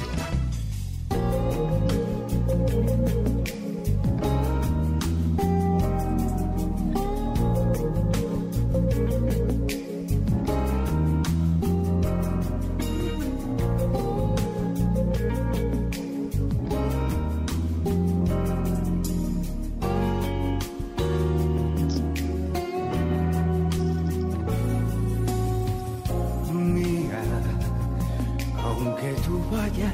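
A song plays from the 'La rocola del cocodrilo' jukebox, full and steady for the whole stretch, with a driving beat, deep bass and layered instruments filling the mix at a constant, fairly loud level.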